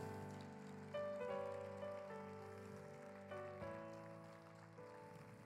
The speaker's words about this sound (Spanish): Dele ese fuerte aplauso.